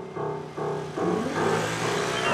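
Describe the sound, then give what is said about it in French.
A car engine hums, its tone climbing in steps as the vehicle drives along and picks up speed on a cobbled, plane-tree-lined port avenue in Belgium, steady and fairly loud throughout with no voices. “les voitures ont remplacé les chevaux et des incertitudes planent sur les platanes et les pavés.”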